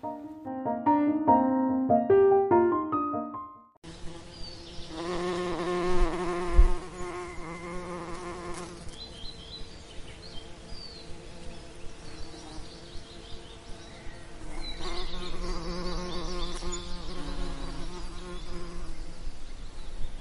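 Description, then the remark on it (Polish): A few short tonal notes open, then a dense swarm of bees buzzes continuously, a steady droning hum with wavering pitch that lasts to the end, with no talking. “pszczółki. Pracownice też przyleciały i sowy cukier zlizywały.”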